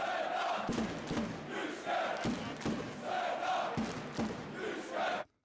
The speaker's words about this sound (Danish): Ja, vi kan høre, at fansen er enige. Det er de. Nyt karaktersystem til Sønderjyske, råber de.